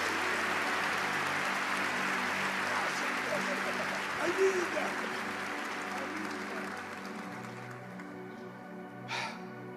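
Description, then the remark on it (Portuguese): At a Christian worship gathering, a crowd applauds loudly as urged to clap as hard as they can, a dense, steady wash of clapping for about eight seconds that then thins out, with one short sharp burst near the end and voices murmuring underneath. “Você pode aplaudir o mais forte que você puder, Luengo, senhoras e Luengo, senhoras e senhores.”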